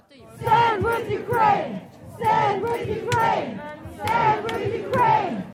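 A large crowd at an anti-war protest in Berlin against the war in Ukraine, over 100,000 people, chants loudly in rhythmic unison, repeating the same shouted phrase in three surging bursts with brief dips between them.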